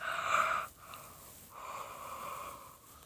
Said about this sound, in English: excuse me, yawned again.